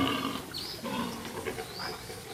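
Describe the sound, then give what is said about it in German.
Wild boars, a single male with several females wallowing in mud, grunt and squeal, low rough grunting running throughout with a couple of short high-pitched squeals breaking through, no voices. “Ein einzelner Keiler vergnügte sich abwechselnd mit mehreren Wildschweindamen, die sich lüstern vor ihm im Schlamm wälzten.”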